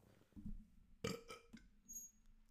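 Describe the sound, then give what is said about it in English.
A single throaty burp rumbles out with a low, drawn-out resonance, followed by a few soft mouth sounds and breaths, otherwise quiet. “I got a burp.”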